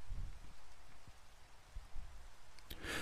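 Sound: steady rain falling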